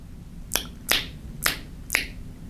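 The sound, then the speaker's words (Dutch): Four crisp, sharp clicks from a small plastic object being handled, spaced about half a second apart, fairly loud against a quiet background with no voices. “Dus we hebben dezelfde materialen, plastic, maar eentje is groot en eentje is klein.”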